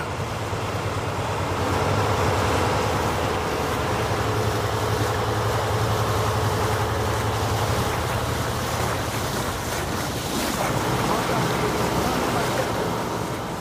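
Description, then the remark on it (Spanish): A steady motorboat engine drones low and continuous, with rushing water and wind noise over it, fairly loud throughout with no pauses, as the boat crosses a lake on a trip of about five hours. “Para llegar al lugar en el que hizo el descubrimiento, hay que cruzar el lago. Son unas cinco horas en lancha.”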